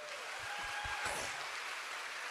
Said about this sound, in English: Aren't you so proud of all our middle schoolers? Would you give a big hand clap for them one more time?